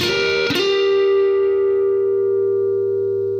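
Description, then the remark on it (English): An electric guitar plays a two-note dyad at the 11th fret of the G string and 12th fret of the B string, hammered on twice, with a sharp attack just after it starts. It then rings out in a long, steady sustain that slowly fades. No one speaks. “And you're going to hammer on twice”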